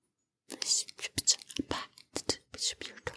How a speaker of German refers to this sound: Warte, ich flüster dir was ins Ohr, damit die Geldsack das nicht hört.